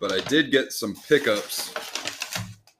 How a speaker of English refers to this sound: Excuse the background noise. I'm grabbing a paper bag. I know my microphone loves this right now.